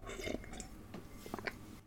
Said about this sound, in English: but okay now i have to take my first sip so